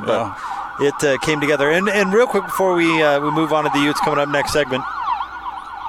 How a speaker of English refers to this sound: sorry about the siren there.